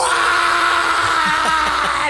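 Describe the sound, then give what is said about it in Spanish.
A voice imitates a terrified scream: a loud, strained, harsh shriek held for about two seconds with wavering pitch, unbroken before trailing off. “El güey está asustadísimo, se tira al piso y empieza a gritar”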